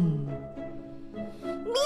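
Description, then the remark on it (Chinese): A human voice imitates a cat's meow, voicing Wilbur the cat as he yowls and dashes upstairs: a drawn-out, wavering harmonic cry that ends in a sharp, high-pitched upward squeal, fairly loud and with no other sounds. “喵！威尔伯大叫着往楼上冲去，火龙宝宝紧追不放。”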